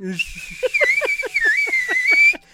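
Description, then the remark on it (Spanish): A voice imitates a donkey's bray: a loud, strained call with a steady run of about eight rapid rhythmic pulses over a shrill, whistly tone, cutting off abruptly. “ya es, un. rebuznido con Bowser”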